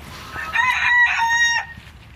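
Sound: chickens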